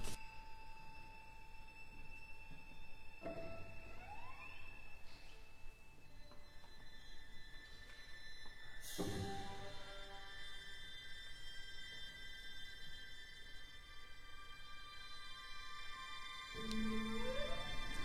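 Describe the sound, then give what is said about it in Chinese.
Chinese instrumental music plays alone: the first movement of the prize-winning piece Eight Immortals (八仙), portraying Lü Dongbin. Long sustained high tones, gliding pitch bends and a few sharp struck accents punctuate a calm, steady texture. “现在我们所听到的第一乐章，描绘的是吕洞宾的音乐形象。”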